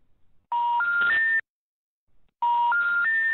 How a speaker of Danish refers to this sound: og da jeg ringede på det nummer, som var oplyst på hjemmesiden, så lød det sådan her.